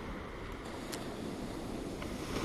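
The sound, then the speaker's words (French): A soft, steady wash of ocean waves on the shore in Kerala, India, a continuous rushing hiss that swells slightly toward the end, heard on its own without any voices. “Et comme tu peux l'entendre, les vagues sont tout autour de moi, depuis l'Inde au Kerala.”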